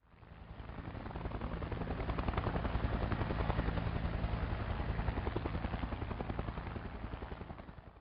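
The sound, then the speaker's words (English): A Sea Sprite helicopter's rotor chops rapidly and steadily, a loud, thick whirring that swells as it approaches and then eases slightly toward the end, with no voices. “Let's find out a little bit about the Sea Sprite helicopter.”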